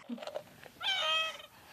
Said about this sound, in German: oh, nee, das war eine Gans.